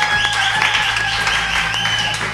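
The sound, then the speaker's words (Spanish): A crowd applauds with steady, dense clapping that holds at an even loudness for a couple of seconds, a faint tonal hum lingering underneath. “Eh, un aplauso también a Caimán.”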